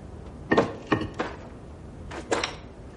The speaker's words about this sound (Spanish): Se acerca a un montón de piedras y ladrillos sobre los que incide un rayo de luz. Camina tambaleante sobre los cascotes.